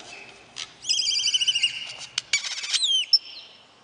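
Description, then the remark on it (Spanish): Birds trill and chirp at sunrise in bright, rapid warbling phrases, clear, with a few sweeping whistles near the end over a quiet background. “Al brotar el sol, felices los anates, el bello trinar.”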